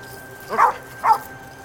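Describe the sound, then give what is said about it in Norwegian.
A police dog barks twice in quick succession, two short, sharp woofs about half a second apart, moderately loud over a quiet background, as it pulls its handler around a property. “En hundepatrulje ankommer snart. Hunden trekker føreren sin rundt på tomta, mot de høye, mørke grantrærne.”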